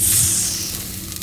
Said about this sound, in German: Sie nickt, macht das Glas auf und greift nach dem pillenartigen Objekt. Man hört ein leises Zischen.